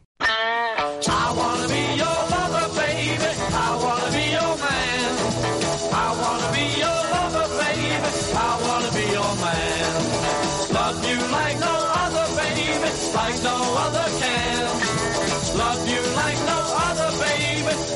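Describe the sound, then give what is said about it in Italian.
A full band plays a song loudly and continuously after a brief start, with a steady driving beat, sustained harmonies and what sounds like a singing voice riding over the mix, played as a musical break in a radio programme. “Una pausa musicale, poi andiamo al Bambino Gesù.”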